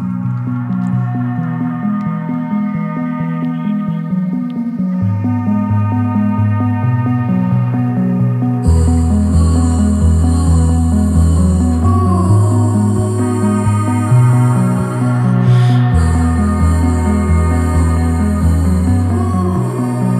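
Atmospheric instrumental music with sustained, droning pad chords over a deep bass line; a brighter shimmering layer joins about halfway through, and the piece stays steady and full with no voices.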